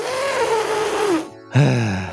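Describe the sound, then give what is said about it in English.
A person imitates an elephant call: a loud, strained vocal blare that slides downward in pitch, a brief pause, then a second, lower honking burst that fades out. “I can make an elephant sound!”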